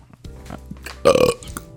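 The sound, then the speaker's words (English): A single loud, gurgling burp rumbles out, rising sharply and lasting a fraction of a second before fading, with faint low voices or background noise around it. “Oh yeah, I burped.”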